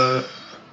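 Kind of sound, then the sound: vocal imitation, person imitating a dog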